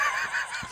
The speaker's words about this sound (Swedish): det var din mage. Eller hals.